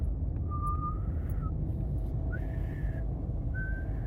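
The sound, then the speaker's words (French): Weak, breathy whistling while blowing out: three thin, quiet held tones, each lasting about a second, with short gaps between them, over a steady low background rumble. “j'arrive même pas en fait à, à, siffler fort en soufflant.”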